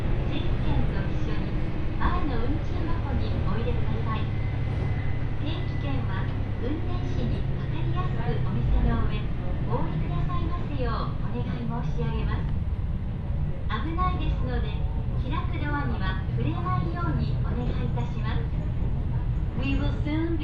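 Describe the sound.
Steady low rumble of an Ibara Railway local train's interior while running between Bicchū-Kurese and Sōun-no-Sato Ebara, with a recorded onboard announcement speaking over it almost the whole time.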